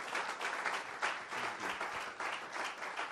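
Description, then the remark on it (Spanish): Steady applause for the Lord from a crowd fills the whole clip, a dense, sustained wash of many hands clapping at a fairly even loudness, with no voices standing out. “Dale un aplauso al Señor. Applaud the Lord.”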